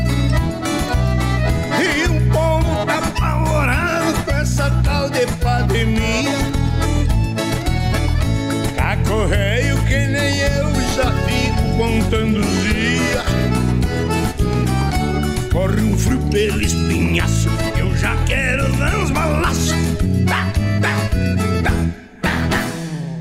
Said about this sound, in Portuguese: Coloca no ar aí então um trecho do clipe.